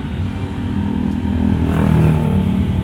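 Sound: car passing by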